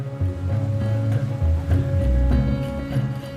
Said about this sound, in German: Eine Verfolgungsjagd mitten auf dem Amazonas. Ich sitze auf einem Schnellboot, neben mir drei Polizisten.